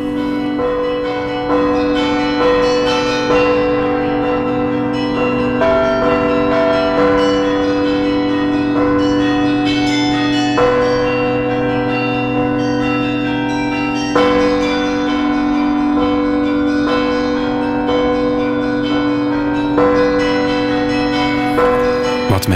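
A carillon plays Preludium No. 8 by Matthias van den Gein, a piece written specifically for the carillon. Many bells ring and overlap in a steady, unhurried rhythm over deep, sustained low bell tones. It's loud and continuous, with no voices.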